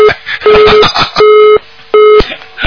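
A telephone busy tone after a caller to a radio call-in show hangs up the phone: a steady mid-pitched beep repeating in regular on-off pulses, about three cycles, over a rough, crackly line noise.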